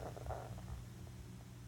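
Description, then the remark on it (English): A low, gurgling stomach rumble rolls along steadily for a couple of seconds, fairly quiet, with no talking over it. “Was that your stomach or mine? That's yours.”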